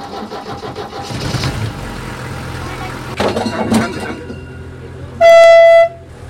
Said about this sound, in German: Also wir fahren jetzt mit dem Schienenbus, der aussieht wie ein Hund. Das Ding scheint sich zu fahren wie ein ganz normales Auto.